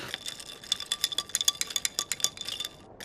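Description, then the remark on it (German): A spoon stirs 350 grams of salt into one litre of distilled water in a glass, making a quick, fairly regular series of bright clinks and scrapes against the glass, with no talking. “Da füllen wir jetzt 350 Gramm Salz rein, ein bisschen umrühren.”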